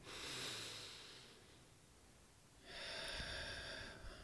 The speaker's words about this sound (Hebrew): פשוט לקחת נשימה. Mm-hmm. לקיחת הנשימה מיידית מכניסה את מערכת העצבים ממצב של מגננה סימפתטי למצב פרסימפתטי של רוגע.